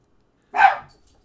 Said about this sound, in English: Well, do we have a time traveler? Nope, apparently that is just a dog walking by. Is it a dog from the future? I don't know.